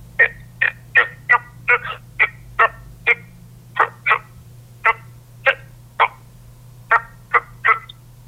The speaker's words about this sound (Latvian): brūngani iepelēkai, sausu, grumbuļainu ādu bez svītrām un plankumiem, tad tas ir parastais krupis.